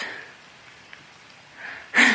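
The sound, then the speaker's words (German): Rain falling as a soft, steady hiss that swells louder in a sudden rush near the end, with no one talking. “es regnet echt.”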